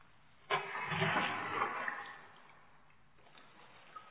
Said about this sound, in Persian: آواز قرقره رو همونطور تو گوشم داشتم و تو آب که هنوز میلرزید لرزش خورشید رو دیدم